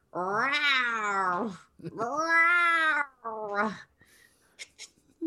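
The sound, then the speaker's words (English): A person voices three loud, drawn-out roaring growls imitating a Leonin's menacing combat roar, each rising and falling in pitch, followed by a few soft clicks and breaths. “like a very loud billowing um,”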